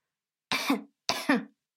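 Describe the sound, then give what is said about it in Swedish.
A voice imitates two short, light coughs in quick succession, fairly soft, with silence before and after, mimicking a neighbour coughing on the other side of a toilet wall. “hosta lite lätt”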